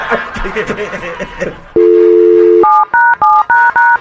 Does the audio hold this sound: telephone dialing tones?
yes